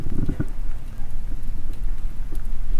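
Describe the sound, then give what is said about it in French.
A furnace door opens as a metal piece is taken out, with a brief louder burst at the start, then a steady roaring rumble scattered with small crackling pops from oxide forming on the cooling metal support and piece, and no voices. “on entend le four qui ouvre”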